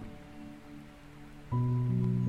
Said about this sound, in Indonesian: Setiap kali katup-katup awan mulai terbuka, menurunkan rintik-rintik air hujan.